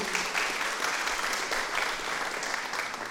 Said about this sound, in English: You can clap her, that's good.